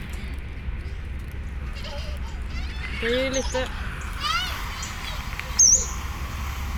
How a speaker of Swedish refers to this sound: Och jag försöker plugga det här ljudet, det här Tigersångare-lätet. Ja, visst. Och Spela det. Lyssna en gång här så ser jag.